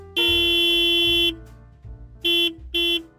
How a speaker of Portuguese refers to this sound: Essa buzina tá parecendo a Kombi do Padre Geraldo.